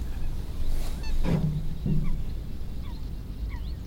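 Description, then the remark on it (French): Two short, low honking territorial calls from waterbirds such as coots, moorhens and little grebes at a lake in early spring ring out about half a second apart over a steady outdoor background hiss, with a few faint higher chirps scattered. “On a plusieurs manifestations territoriales d'oiseaux, euh, les foulques, les poules d'eau, euh, les grèbes castagneux, l'espèce de petit rire qu'on entend, les premiers migrateurs aussi qui viennent d'arriver”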